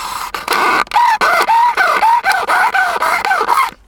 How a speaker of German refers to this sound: jetzt kommt dieses typische McDonalds-Geräusch, wenn man nämlich den Strohhalm mhm. in die davor gesehene Öffnung mhm. bei der Cola reintut.